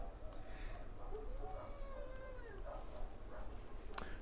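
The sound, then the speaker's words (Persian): A pack of jackals wail and howl together in overlapping, wavering cries that rise and fall in pitch, over a steady low rumble, ending with a sharp yip. “شغالا که کلا گروهی حرکت میکنن صدای شیون زن که میاد این صدای شیون زنه اینو میبینی؟”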